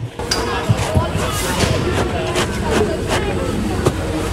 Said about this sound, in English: Okay, so we are testing the integrity of this snow. It is cold, it's icy, it's got snowflakes. Can you hear it crunch?